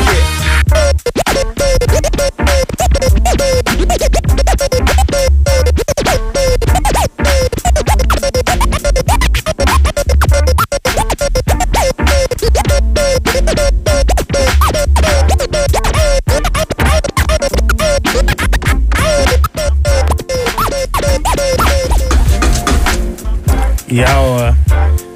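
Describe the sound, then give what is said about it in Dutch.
Loud, continuous DJ scratching over a thumping beat, with rapid crossfader clicks chopping the sound into quick, stuttering bursts for the whole stretch. “als ik die, als ik die microfoon zacht doe, hè, dan hoor je hem gewoon lekker dan hoor je hem gewoon tikken op dat ding.”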